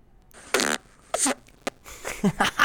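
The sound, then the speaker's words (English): A series of buzzy fart noises made into a phone, several short bursts in quick succession with brief gaps, sounding loud and slightly distorted as if right against the phone microphone. “You're just farting into your phone?”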